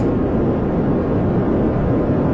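Brown noise: a steady, deep rumbling wash, loud and unbroken, heavy in the low end and muffled up top, like a roar inside an airplane cabin.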